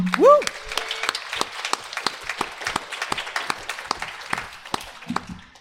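A small group applauds the sound engineer with loose, irregular claps for several seconds, fairly loud, opening with a short rising whoop before the clapping thins out near the end.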